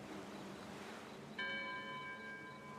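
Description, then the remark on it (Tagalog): A single church bell strike rings out over a low hiss of background noise, its bright, layered tone lingering and slowly fading. Fairly quiet, with no voices. “Pagkatapos ay may naririnig din akong tunog na parabang nasa isang simbahan kami.”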